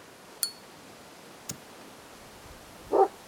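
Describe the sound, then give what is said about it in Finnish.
A single short bark from a neighbour's dog named Devil near the end, preceded by a couple of faint sharp clicks against a quiet background, with no one speaking. “Ja tuo sun koiras on Devil.”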